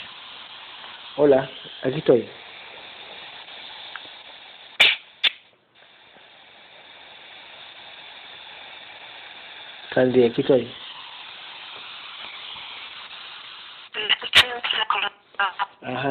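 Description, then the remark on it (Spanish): A voice on a poor call line keeps cutting in and out in short, clipped bursts because of a bad connection, separated by steady hissing static and a sudden brief dropout to silence. “sí, se escucha entrecortado.”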